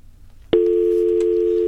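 A telephone dial tone switches on abruptly after a brief quiet moment as a call is placed to a composer, then hums steadily and loudly at one pitch until the end, with no talking.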